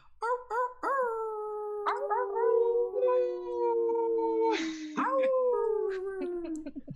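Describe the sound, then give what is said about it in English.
Several people unmuting their microphones on an online broadcast imitate wolf howls, long sustained wavering tones sliding slowly downward, overlapping, with short yips at the start and a breathy burst midway. “So let's get those wolf howls going.”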